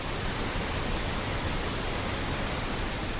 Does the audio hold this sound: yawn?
no